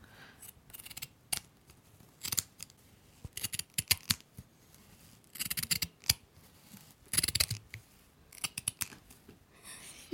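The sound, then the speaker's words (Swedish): Scissors snip through coarse burlap fabric in a series of crisp, rasping cuts, some quick and clustered, others spaced apart, with no talking. “så du får ta och klippa lite ja, säckväv bara för att känna känslan.”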